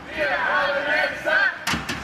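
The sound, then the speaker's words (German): A large crowd of thousands of farmers, who drove their tractors to the Brandenburg Gate in Berlin in 2019 to protest stricter environmental regulations, shouts and chants together in a sustained, rising roar of many voices, with two sharp bangs or thumps breaking through near the end. “Tausende Landwirte rollen mit ihren Treckern vor das Brandenburger Tor, um gegen schärfere Umweltauflagen zu demonstrieren.”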